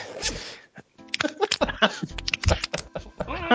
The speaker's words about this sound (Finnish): Kuuluu tää vitun vetkari aukeamiseen.